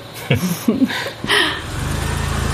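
A few brief vocal sounds, then a car engine starts rumbling low and steady, its throaty pulse continuing to the end as the vehicle pulls off into the darkness.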